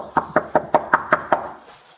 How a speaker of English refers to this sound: Well, how would you know we're knocking on the door? We're not leaving. Come to the door.